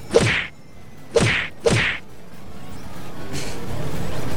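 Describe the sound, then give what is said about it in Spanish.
Three sharp virtual punch impacts from a video game land in quick succession, each a loud swishing thwack with a brief tail, followed by a softer whooshing sound and lingering low rumble. “Eh, me encanta, pegarle puñetazos virtuales al Virtuales.”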